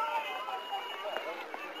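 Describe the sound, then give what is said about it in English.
A crowd of female jail inmates shouting encouragement and cheering together, an overlapping babble of calls with occasional louder whoops rising above it. “a group of uh, female inmates in the jail there shouting encouragement, cheering.”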